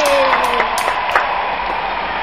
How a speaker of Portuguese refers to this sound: Também estamos aqui com a nossa primeira convidada. Palmas para convidada.